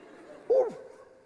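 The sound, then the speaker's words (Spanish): A dog lets out one short, fairly loud bark that drops in pitch at the end, standing out against a faint, steady background hum. “Hasta el perro se confundió.”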